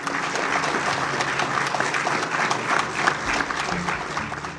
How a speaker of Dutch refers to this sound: Hij werd onmiddellijk onthaald op een enorm applaus.